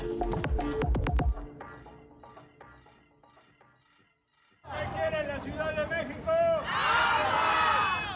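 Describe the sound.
Loud crowd voices of protesters in Mexico City demonstrating over a severe water shortage, shouting together, then a quieter pause, then a dense burst of many people yelling and chanting over one another.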